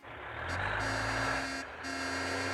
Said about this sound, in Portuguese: o caminhão do lixo já passou, já passou, né? Então o caminhão do lixo já passou. Ele já passou, ele tá já voltou, ele já passou de novo, ele passou em cinco vezes já